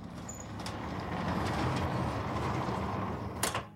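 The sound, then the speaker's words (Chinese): The heavy metal door of an isolation room grinds and rattles mechanically for a few seconds, then slams shut with a single loud clang and a latching clunk as it locks. No one speaks. “隔离室的大门咣当一声锁死。”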